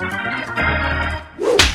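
A single sharp, loud slap sound effect cracks near the end, preceded by a brief tonal musical swell, with no voices present.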